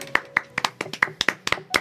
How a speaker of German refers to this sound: Ja, das ist doch, das ist doch Alter, einen kleinen Applaus wert.